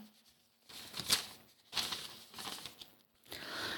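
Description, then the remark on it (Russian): A paper page of a letter is turned while it is read aloud, several crisp rustling, crinkling swishes in quick succession, fairly quiet, with no one speaking. “разложил, следующая страница”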